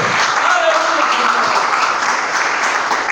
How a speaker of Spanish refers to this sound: Le voy a dar un aplauso a Cristo, por favor.